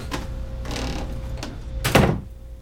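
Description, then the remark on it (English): A few clunks and rattling handle sounds lead up to a heavy door slamming shut and being locked, the loud bang ringing briefly before it falls quiet. No one speaks. “Hey, unlock this door.”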